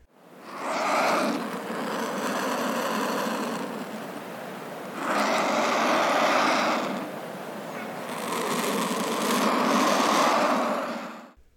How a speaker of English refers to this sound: Um, so, since they don't have a vocal organ, they only communicate with grunts and hisses, and you usually only hear them do this when they're on the nest site.